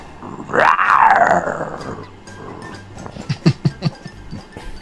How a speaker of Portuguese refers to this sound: Leão!